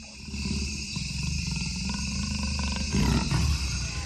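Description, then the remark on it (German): A jaguar growls low and rumbling, about ten meters from the microphones, with a sustained guttural snarl that swells louder near the end, over a steady background hiss of forest insects. “So weit war der Jaguar also noch entfernt, als er ihn direkt in seine Mikrofone knurren hörte.”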